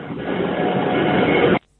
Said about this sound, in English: Sorry about that. I was oh. on the train, so I went through a tunnel.